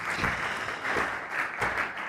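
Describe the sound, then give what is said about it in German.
Steady applause from a church audience, a dense wash of many hands clapping at once with faint surges in intensity, moderately loud and continuous, with no voices on top. “Lasst uns auch diesen Leuten nochmal einen dicken Applaus geben.”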